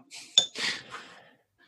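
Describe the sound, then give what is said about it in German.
A single sharp glassy clink of a beer glass stands out near the start, followed by soft breathy rustling and a brief swallowing or sipping sound as a man takes a deep gulp of cold beer, all fairly quiet, with no talking. “Und mit diesen Worten schnappt er sich sein kühles Bier und nimmt nochmal einen tiefen Schluck, um den Schmerz runterzuspülen.”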